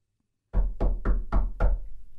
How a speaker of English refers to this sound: The knock on the door that at the rate we're going is coming for us all. It's the federal government.